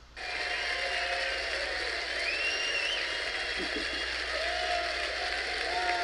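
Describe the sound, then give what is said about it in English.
A crowd at a Reawaken America tour event claps and cheers loudly and steadily for about six seconds, a dense wash of applause with a few high whistles rising above it. “And yeah, and these guys deserve a round of applause, believe me.”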